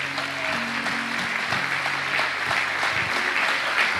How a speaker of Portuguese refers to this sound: Glória a Deus. Glória a Deus. Aplauda ao Senhor mais uma vez.